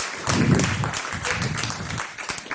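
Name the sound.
applause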